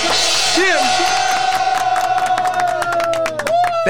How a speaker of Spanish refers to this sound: Tú y yo que somos los chancleteros, un aplauso.